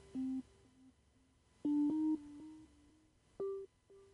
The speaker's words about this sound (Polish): No, widzę, że ktoś dzwoni, ale to już jest niestety przykro mi za późno. Jak już ten utwór jest, już niestety nie odbieram, bo i tak audycja trwa prawie 3 godziny.